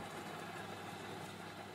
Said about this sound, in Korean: 믹서가 돈다.